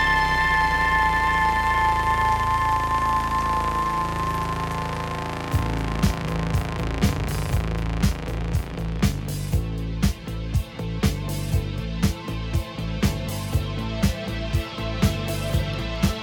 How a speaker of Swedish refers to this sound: Nu har vi testat ljudet i synten.